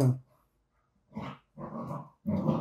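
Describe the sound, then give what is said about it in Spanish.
Several dogs bark and growl in a few harsh, sustained bursts separated by short pauses, fairly loud, with no one talking over them. “ahí disculpen, se escuchan un poquito los perros, este...”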